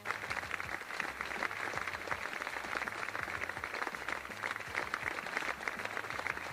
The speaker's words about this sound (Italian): E quanti, quanti, quanti applausi, Io immaginavo, va bene